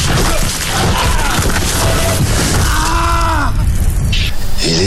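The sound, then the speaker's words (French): A large boulder of about 500 kg, ten metres up, collapses as a climber reaches its top, pinning his right arm against the rock wall: a loud, sustained crash, heavy rumbling and grinding filling nearly five seconds, low groaning tones rising through the middle before the noise settles. “Arrivé au sommet, ce dernier s'écroule et bloque son bras droit contre la paroi.”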